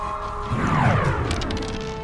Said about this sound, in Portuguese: A bola de trovão vai voando, bate no espectro, role 3D8. 9 de dano. Ela bate explodindo, fazendo barulho na região.